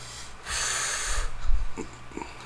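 A breathy inhale of cigar smoke, taken like a cigarette, draws in sharply for under a second, followed by quieter low rumbling and faint soft exhales.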